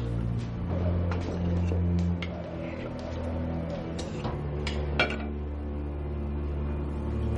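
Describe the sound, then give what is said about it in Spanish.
Plates and cups clink against a golden tray holding a teapot of tea, as three slices of chocolate cake are served onto it, in a handful of sharp, irregular knocks over a steady low background hum with no talking. “A continuación sirve tres trozos de pastel de chocolate en la misma bandeja.”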